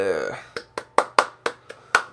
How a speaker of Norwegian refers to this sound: får rett og slett en klapp, altså. Får rett og slett en klapp.